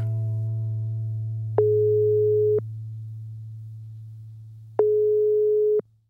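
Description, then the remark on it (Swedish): Two long, steady beeps of a telephone ringing tone play several seconds apart over a constant low hum, as a call is placed and waits to be answered. No one speaks. “Ja, vi ringer och kollar.”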